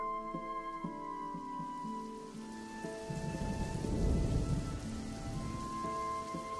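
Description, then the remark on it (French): Heavy rain from a violent thunderstorm at the Lariboisière hospital hisses steadily beneath sustained musical tones, swelling midway as a deep roll of thunder rumbles through, then easing back to a steady downpour. “Le jour d'après, un violent orage rendit l'arrivée à l'hôpital Lariboisière encore plus lugubre qu'à l'accoutumée.”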